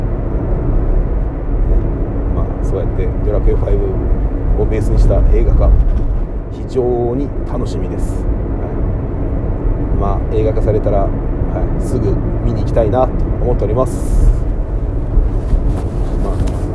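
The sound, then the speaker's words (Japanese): A man talks steadily over a constant low rumble of road noise inside a moving car, the deep hum filling the bottom of the sound throughout. “今日はですねちょっと車の中で音質も悪いかもしれませんので”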